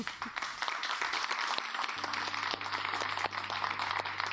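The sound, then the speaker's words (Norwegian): An audience at a public meeting on offshore wind applauds the debate panel steadily, a dense wash of many hands clapping at once with a few sharper individual claps standing out, holding at a fairly even level for the whole stretch. “Gi panelet en god applaus.”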